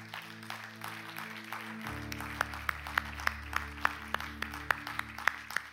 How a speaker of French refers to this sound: Amen. On peut applaudir le Seigneur ce matin.